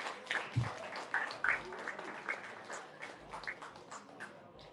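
An audience applauds a performer again after a performance, with a dense, steady patter of many hands clapping, moderately loud at first and easing off slightly toward the end, with faint crowd murmur underneath.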